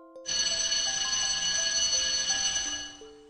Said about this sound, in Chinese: 好在这时上课的铃声响起来了。